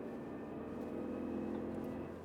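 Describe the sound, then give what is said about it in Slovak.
A steady mechanical whine from a gold-coloured car's differential rides over a constant low engine drone inside the moving car, holding an even pitch throughout, loud with no voices. “Oh, to je ako keby si mal kompresor a pritom máš len diferenciál.”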